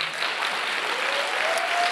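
Steady audience applause fills the room, a dense wash of many hands clapping at once, sustained at an even level throughout with no voices standing out.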